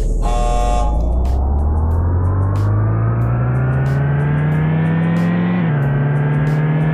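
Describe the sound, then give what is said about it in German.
A brief electronic start beep at the race start gives way to a racing video game car engine revving up, its pitch climbing steadily, then dipping with a gear shift before climbing again. Loud, no talking. “Startet die Motoren. 3, 2, 1.”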